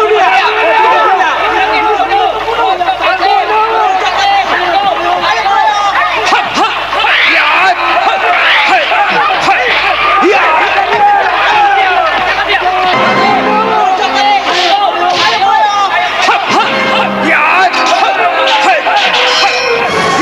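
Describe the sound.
A large crowd shouts and jeers from a distance in a dense, overlapping roar of many voices that stays loud and unbroken for the whole twenty seconds.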